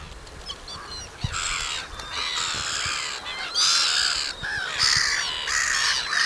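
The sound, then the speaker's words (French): Gulls call out in a loud, harsh, overlapping chorus, with repeated squawking cries that come in bursts and nearly fill the whole stretch, no one talking. “Si, c'est des mouettes.”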